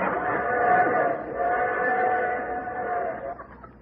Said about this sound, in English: What's that, Daddy? It's a train whistle.